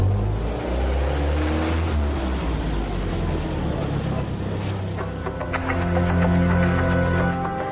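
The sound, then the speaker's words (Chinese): A car engine roars steadily and loudly as the vehicle, loaded with two sacks of banknotes, speeds off toward the Minzu Hotel, its low rumble joined by rising, revving tones toward the end. No one speaks. “分装在两个麻袋里，送上汽车，向民族饭店疾驶。”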